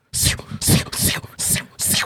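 A voice imitates the footsteps of the character Kurapika walking away: five evenly paced, breathy hissing bursts in a steady rhythm, fairly loud, with short gaps between each step and no other sounds.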